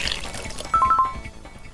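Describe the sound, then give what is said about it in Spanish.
A short water sound effect in a sound-guessing game: a soft liquid swish followed by a quick run of three or four bright, plinking drips, clear, with no voices. “Y ahí está el agua.”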